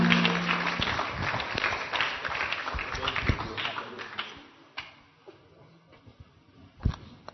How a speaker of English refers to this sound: Those who are clapping, it's very weak, very weak, very weak.